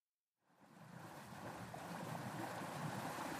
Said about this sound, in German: Das Wetter ist nach wie vor schlecht, immer wieder dringen Wellen und Wasser in das kleine Beiboot.